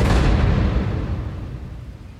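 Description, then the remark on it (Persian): A loud, deep thunder crash rumbles at full strength from the start, then slowly rolls and fades over a couple of seconds, with no voices present, during a storm with strong wind and lightning. “برگا و شاخه های درخت به هم میخوردن باد شدیدی میوزید و صدای رد و برق بلندی شنیده میشد”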